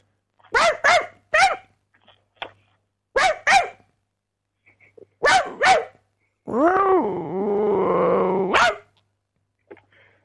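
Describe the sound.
A man's voice imitates a dog, speaking to a dog over the phone, giving several short, sharp barks in pairs, then a long drawn-out growling whine before one final bark, loud with no other talking.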